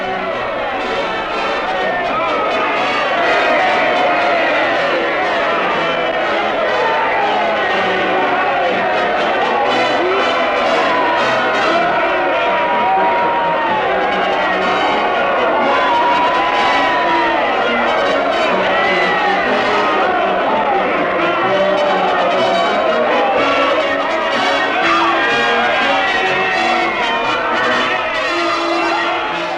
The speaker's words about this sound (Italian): Come avete ascoltato nell'audio tratto dai cinegiornali dell'Istituto Luce poco dopo il 25 luglio 1943, relativo a Piazza Venezia a Roma, ovunque le manifestazioni di piazza salutano la caduta del regime fascista.